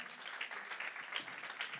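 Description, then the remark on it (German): A church audience applauds to welcome people the pastor calls to the front, with steady, dense clapping that holds at an even level for the full two seconds, a continuous patter of many hands with no voices standing out. “Und ähm, wenn ich jetzt gleich die Leute nach vorne rufe, ähm, dann heißt sie doch ganz herzlich willkommen äh, mit einem kleinen Applaus.”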